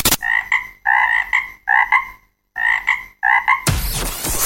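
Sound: frogs croaking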